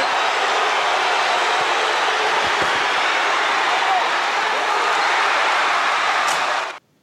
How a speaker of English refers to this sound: Man, how into that chair shot was the crowd? Like, they're roaring. Listen to this.